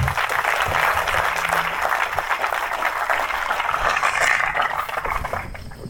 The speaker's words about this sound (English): And so, can we please give a warm uh, round of applause